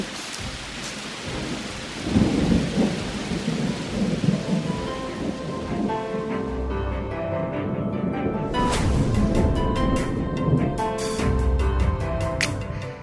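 Steady rain pours down with a dense hiss, while low rumbles of thunder roll underneath and a few sharper crackles break through. No one speaks.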